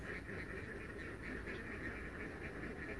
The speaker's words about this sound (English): those ducks in the background, they're they're real ducks. That's not just a superimposed sound of ducks. You can probably do that. You can probably just add duck sounds, but I, I wouldn't do that.